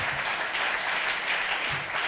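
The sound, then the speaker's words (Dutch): A church audience applauds steadily, a dense, continuous patter of many hands clapping at an even loudness for the full two seconds, with no voices heard above it. “Het is dus, geen applaus voor mij, maar ik vind het gewoon zo bijzonder dat we in een week tijd hier als kerk, als helpcenter samen dit mhm.”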